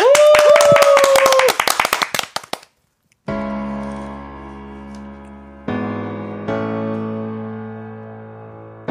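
audience applause

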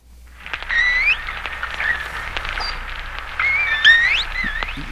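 dolphin clicks and whistles

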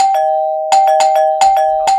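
doorbell ringing

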